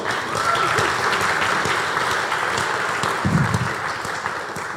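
Sustained audience applause for Wendy fills the space, a dense steady patter of many hands clapping at moderate loudness, with faint voices murmuring underneath.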